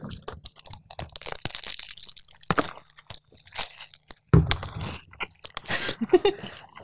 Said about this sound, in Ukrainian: ми перед записом жартували про asmr ефект, коли ми будемо жувати прямо в мікрофон. Е, просто вибачаємось, можливо, за це звук.